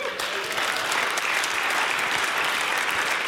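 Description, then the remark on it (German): Steady audience applause at a Move Church service, a dense wash of many hands clapping at an even, loud level for a few seconds with no clear individual claps standing out. “Großen Applaus.”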